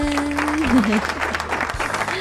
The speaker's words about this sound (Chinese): bingo，鼓掌，噔噔噔噔。